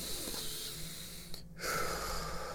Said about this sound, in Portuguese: respirar fundo, prestar atenção na sua respiração, você já coloca o foco no presente.